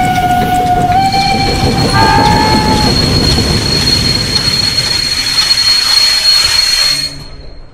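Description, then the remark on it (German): A train that had stopped starts moving again and pulls away, with a steady heavy rumble, electric motor whines stepping up in pitch, and a thin high squeal from the wheels; loud, with no voices, before it cuts off. “Aus unerfindlichen Gründen ist der Zug stehen geblieben und startet jetzt wieder.”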